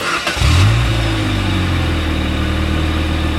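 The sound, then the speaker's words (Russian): A car engine running on Rolf motor oil cranks and catches, revs up briefly, then settles into a steady, low rumbling idle, fairly loud with no one talking. “Так звучит двигатель, работающий на моторном масле «Рольф».”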